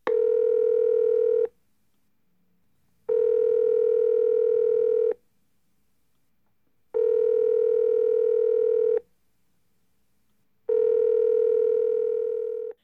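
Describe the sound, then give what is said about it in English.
A telephone ringing tone of an outgoing call repeats four times, each steady, buzzy tone lasting about a second and a half with roughly equal silent pauses between. It is clear and prominent, with no voices. “let me give a little ring to Kira Sabin”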